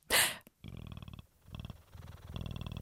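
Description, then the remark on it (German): A person imitates a cat's purr in three rough, rumbling bursts separated by short pauses, moderately loud, preceded by a brief breathy noise. “Ich kann nein, schnurren nein, wie eine Katze.”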